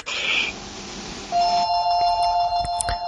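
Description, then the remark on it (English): A phone rings with a bright electronic tone, starting as a hissy burst and then settling into steady, sustained beeping pitches with a few sharp clicks near the end. No one speaks. “Wouldn't be a podcast off the phone ring.”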